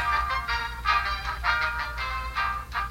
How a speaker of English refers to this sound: But whatever it sounds like, when your phone rings, way too often it's going to be a call you don't want a sales call, a con artist, or worst of all, a robocall.